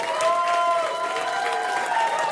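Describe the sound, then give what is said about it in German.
A crowd applauds steadily with dense, continuous clapping, mixed with sustained cheering voices or whistles, moderately loud throughout the short stretch, as a live audience welcomes performer Kay Ray on Kontrafunk. “Und jetzt haltet den Applaus.”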